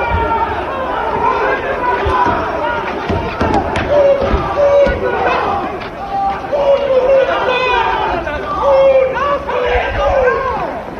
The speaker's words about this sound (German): auch mutmaßlich zu hören ist, dass Mark Uth von Fans verfolgt wird